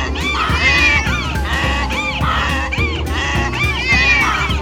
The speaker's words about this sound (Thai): เจ้าไก่ ก็บินขึ้นสูง และส่งเสียงร้องดังลั่นบ้านแล้วการขับขานร้องเพลงประสานเสียงก็ดังโหยหวนขึ้นอีกครั้งในความมืด